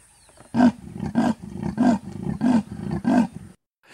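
A leopard's rasping roar, a steady series of about six harsh, sawing grunts in a regular rhythm, loud, with no voices.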